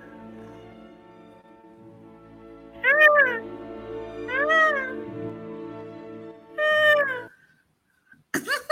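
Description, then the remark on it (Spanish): A human voice imitates whale song with three long, wavering, rising-and-falling calls, spaced a second or two apart, over a low steady background hum, ending with a brief rustle. “Así le hacen las ballenas, ¿no?”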